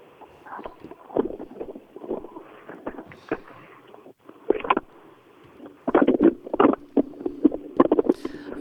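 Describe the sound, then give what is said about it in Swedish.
A distant rally car engine rumbles low and steady, rising and falling in short surges, with wind buffeting the microphone throughout. “vi hör på långt håll att det börjar brumma.”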